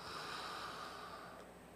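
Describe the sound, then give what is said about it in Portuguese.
A single long, airy breath drawn in, steady and breathy for nearly two seconds, with no talking. “Pessoal, água, cafezinho, respiraçãozinha, vamos lá?”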